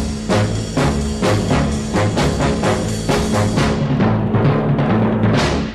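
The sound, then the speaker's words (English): An early rock and roll single, one of the first two rock and roll singles produced by George Martin, plays loud with a steady driving beat and a full band sound running continuously throughout. “But for those two singles, the first two rock and roll singles that were produced by he,”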